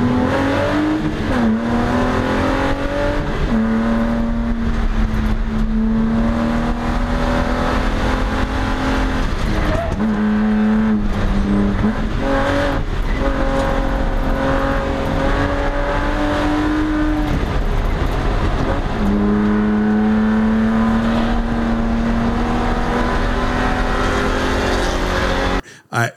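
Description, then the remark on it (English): An onboard rallycross race car engine, recorded by a GoPro on the car, roars, revving hard through repeated rising and falling gear changes, with brief tire squeals under a constant loud, gritty rumble. “I will find a clip because we do have a GoPro on the car.”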